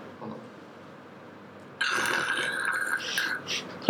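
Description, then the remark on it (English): After a quiet stretch, duct tape is pulled off a roll in one long, raspy rip that continues to the end, with no one speaking. “I have some duct tape.”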